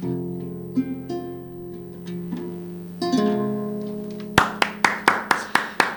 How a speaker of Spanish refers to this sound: Hoy suenan más huecos mis aplausos al no estar acompañados de los de Vero,